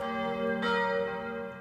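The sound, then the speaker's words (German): Bells of the Auferstehungskirche (Resurrection Church), a neo-Gothic Protestant brick town church in Deckendorf, Germany, ring out with a rich, sustained tone, a fresh strike blooming over the lingering hum of earlier peals, no voices present. “Die Glocken der Auferstehungskirche weisen den Weg.”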